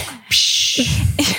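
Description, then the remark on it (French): A dog sneezes or snorts: a sudden breathy burst of air that hisses for a moment, followed by a second short snort, with no one talking. “c'est mon chien.”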